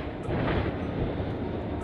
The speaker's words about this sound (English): I know it's kinda loud. I'm on the metro.